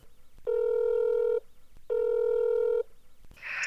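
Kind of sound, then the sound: signal or alarm, telephone call ringing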